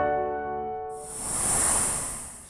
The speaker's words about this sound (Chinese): 哦，乖乖，这是蛇制造出来的声音啦。其中有一种蛇是布农族的好朋友哦，你要猜一猜吗？一、二、三，答案就是百步蛇。